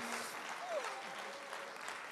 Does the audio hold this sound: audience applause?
yes